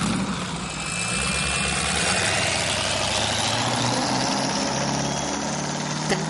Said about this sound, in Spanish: mira la lancha alejarse desde la cabina